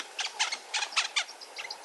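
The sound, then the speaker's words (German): A honeyguide bird chirps excitedly, as it does when it meets people in its territory, in quick, repeated bursts of bright, rattling notes, alone, with short pauses between the clusters. “Oftmals übernehmen aber auch die Honiganzeiger die Initiative und zwitschern aufgeregt, wenn sie in ihrem Revier auf Menschen treffen.”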